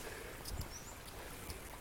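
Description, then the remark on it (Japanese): A soft, steady rush of the gently flowing Yazawa River in a gorge, heard while walking downstream on the promenade along its left side; the current is not strong today. Fairly faint and continuous, with no voices and only a few brief low bumps. “川の流れ、えー、っと聞こえますかね、えー、っと今日はそんなに流れが強くないんですけど、えー、矢沢川という川の、えー、左川下流に向かって歩いてるんですけど”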